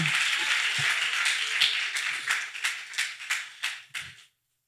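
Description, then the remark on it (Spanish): An audience applauds in a dense burst of clapping that thins out into a few separate, sharp claps before stopping abruptly. No one speaks. “Dele un aplauso, señorito y asiento.”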